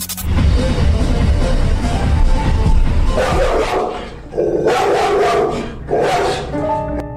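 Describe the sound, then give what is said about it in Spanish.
A female pit bull kept outside barks loudly in a few drawn-out, snarling bursts over a noisy, rumbling background, with no talking. “También subió videos donde se ve que el agresor tenía afuera a su perra raza pitbull y que cada que pasaba le ladraba”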